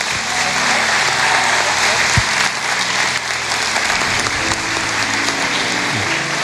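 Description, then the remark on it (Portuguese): An audience in São José dos Campos claps steadily for Jesus, the dense, sustained applause of many hands filling the whole clip at a loud, even level, with faint voices and cheers mixed underneath. “Pode aplaudir Jesus.”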